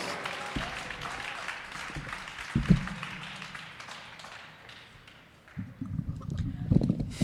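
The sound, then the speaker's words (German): Steady audience applause for the act with starting number 1, a dense wash of many hands clapping that carries on throughout, with a few louder bursts and some low rumbling or whooping near the end. “Riesengroßen Applaus für die Startnummer 1”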